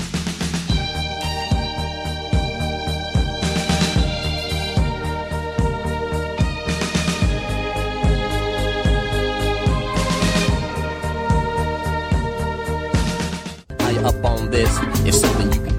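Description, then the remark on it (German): A loud, full-band pop track plays with a steady driving beat, bright cymbal bursts every few seconds, layered synths and harmonies, then an abrupt cut near the end into a busier section. “kommen, wir, kommen mal zu deinen gut gealterten Songs. Das hören wir nämlich jetzt hier.”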